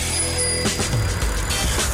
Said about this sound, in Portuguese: agora aqui no Viaduto Camargo Correia, onde eu observo o trânsito bastante movimentado.